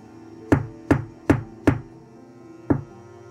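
Knocking on a room door, fairly loud: four quick, evenly spaced knocks, a short pause, then one more knock, with no voices.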